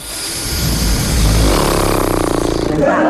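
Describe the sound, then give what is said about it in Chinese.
A loud motorboat engine roars and builds, its low drone rising into a steady, rapidly pulsing buzz as it speeds up, with no one talking over it. “啊，这说的好的好像坐快艇似的，真是。”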